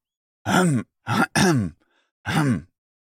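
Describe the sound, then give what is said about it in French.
Four short throat clearings in a row, each a gruff voiced burst with brief pauses between, the last separated by a slightly longer gap. No speech accompanies them. “Pour cela, vous allez commencer par vous racler la gorge plusieurs fois.”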